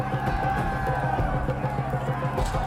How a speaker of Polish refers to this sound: Słuchaj, tu, jak słyszysz, wiwatuje. Ludzie wznoszą ręce, stoją wokół tej areny.